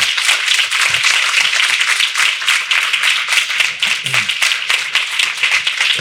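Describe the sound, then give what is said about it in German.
Sustained applause from an audience thanking two speakers at the close of a talk event: a dense wash of many hands clapping at a steady, loud level for several seconds, with a few faint voices mixed in. “Kräftigen Applaus und herzliches Dankeschön”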